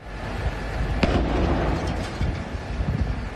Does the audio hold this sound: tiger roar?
no